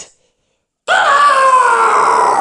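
After a moment of silence, a loud, piercing scream bursts in and holds steady, its high pitch sagging slightly as it stretches on without a break to the end.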